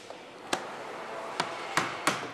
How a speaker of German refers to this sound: Die Glasleisten klopft er mit dem Hammer vorsichtig fest.